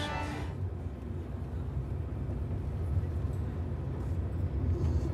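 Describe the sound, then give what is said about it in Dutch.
Steady low rumble of a car cruising at speed on a motorway, heard from inside the cabin as the driver heads for the A30 towards Barneveld and Ede, with continuous road and engine drone and faint wind hiss throughout. “moet even de weg in de gaten houden. Want eh, ik moet ah, de A30 moet ik op.”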